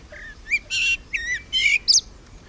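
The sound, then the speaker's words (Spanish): A young blackbird sings a halting, unpolished phrase of alternating whistled notes and buzzy, scratchy bursts, clear over quiet background, with no voices. “Bien, para que entienda un poco de esto, es claramente un mirlo, pero es un mirlo que tiene mucho, mucho camino por delante, ¿no?”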